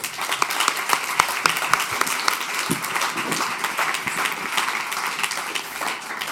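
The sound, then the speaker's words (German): A crowd applauds steadily for several seconds to welcome a guest onto the stage, a dense wash of many hands clapping with a few sharper individual claps standing out, holding at an even loudness throughout. “Und lass uns ihn mit einem herzlichen Applaus auf die Bühne holen.”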